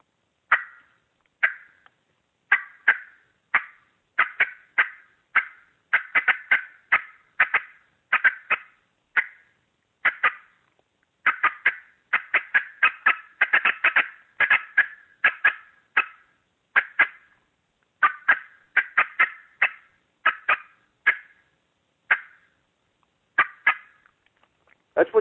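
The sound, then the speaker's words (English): Sharp, rapid turkey hen cutting notes made on a turkey call, loud, bursting in quick irregular clusters with brief pauses throughout, no talking. “I'm going to give it what I call TikTok cutting because this is what you hear hens do most of the time”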